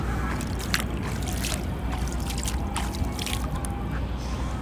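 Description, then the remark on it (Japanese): Cold sea water sloshing and splashing at the shore, with scattered bright splashes and drips over a steady low rumble of surf, continuous throughout with no voices. “今ほんと海のそばにいるのよこんな感じでね聞こえる聞こえたは濡れたかも 本当に”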